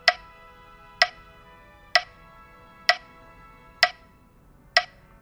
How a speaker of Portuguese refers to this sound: É, o primeiro filme, o pessoal tava ali descansando, em média, em 64 BPM, que é mais ou menos isso aqui, ó. vou colocar o metrônomo aqui